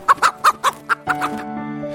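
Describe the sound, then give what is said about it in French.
A hen clucks five times in short, quick bursts, clear, before a steady, droning harmonic tone takes over and fills the rest. “Aux œufs sont associés la poule qui devient aussi un symbole de la fête de Pâques.”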